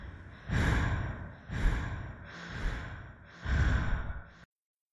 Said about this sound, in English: Eyes closed, breath deep and steady she waited until she soon heard the sound of someone else breathing.